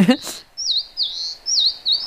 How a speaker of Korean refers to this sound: 어, 이 소리는 새끼 참새가 밥 달라고 입을 벌린 소리예요. 예. 들어보세요. 어, 배고프대요. 새끼 참새가 배고파갖고 엄마 참새가 물어왔고요.